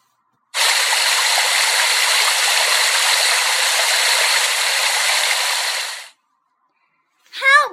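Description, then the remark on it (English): A loud, steady rush of river water pours on continuously for several seconds, then cuts off, followed by a brief voice-like cry at the very end. “Then a mighty river.”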